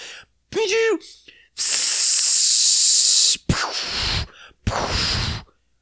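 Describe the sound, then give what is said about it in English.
A voice mimics fireworks: a short rising whistle, then a long loud hissing fizz, followed by two breathy, crackling bursts, all fairly loud. “That's shitty fireworks noise. I need some better fireworks sound effects.”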